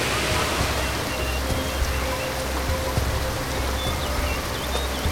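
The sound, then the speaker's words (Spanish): The Fin del Mundo waterfall on the Dantayaco river, surrounded by jungle trees and rocks, rushes in a steady, dense roar of white noise that never lets up, fairly loud, with a few faint chirps threading above it. “Entonces hemos llegado aquí a, la cascada, fin del mundo, y entiendo perfectamente por qué se llama fin del mundo, porque básicamente uno va caminando, bajando el cauce del em, río Dantayaco, rodeado de árboles, de selva, de rocas, el sonido del río”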